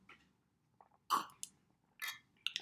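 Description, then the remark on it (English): Champagne glasses clink together a few times, quiet, each bright tap separated by a brief pause, with no voices present. “Uh, Clink. Champagne is my favorite thing.”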